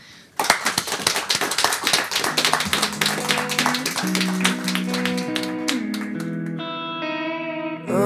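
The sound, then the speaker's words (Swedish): A sudden burst of dense, rapid clapping like applause, heavily processed with effects, gradually dissolving into sustained, ringing electronic tones that rise in pitch toward the end. No one speaks. “En applåd!”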